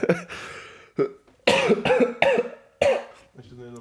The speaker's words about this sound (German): Ich habe übrigens Covid. Ähm, ich glaube es nicht. Ich weiß es nicht. Ich huste drei Wochen. Ich habe wahrscheinlich Covid.